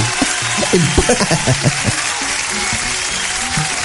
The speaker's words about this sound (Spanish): Un aplauso.